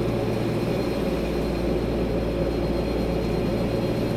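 A steady, low-pitched engine drone fills an airplane cabin on a flight to Paris, a constant rumbling hum with no breaks, heard from inside and fairly loud throughout.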